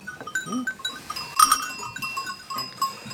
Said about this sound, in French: les cloches, il y en a, il y en a de différents calibres. Celle-ci, est plutôt grave. Celle-ci est plutôt claire